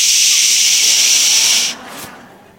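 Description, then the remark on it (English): A father gives a loud, drawn-out "shh" shushing hiss lasting nearly two seconds, hushing a man shouting in the house at almost 2 a.m., then it cuts off with a brief softer breathy trail. “And I can hear my dad saying, Shh!”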